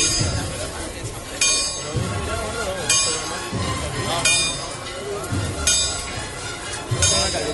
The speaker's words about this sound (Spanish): Y escuchamos cómo replica la campana de la ermita de la soledad.